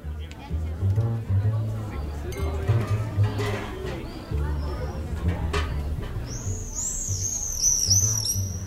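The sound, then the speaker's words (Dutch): Shrill, high screaming calls of common swifts burst out near the end in a quick run of several cries, over a steady background of people talking. “Als je de gierzwaluw hoort, dan weet je dat het strand niet meer veraf is.”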